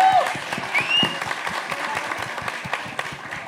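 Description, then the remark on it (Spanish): An audience applauds steadily, many hands clapping in a dense, continuous patter that holds at a fairly even loudness throughout, with a brief high whistle near the start. “Uy, un aplauso qué para”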